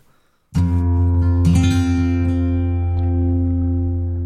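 A folk tune from a duo begins abruptly with full, sustained chords, reedy and droning like an accordion, with a second strong accent about a second later. It stays loud and steady, with no singing yet.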